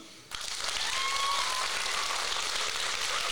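An audience bursts into sustained applause to vote on which story to hear, the vote judged by how loud the clapping is: a dense, steady wash of many hands clapping at a fairly loud level with a faint whistle or cheer mixed in.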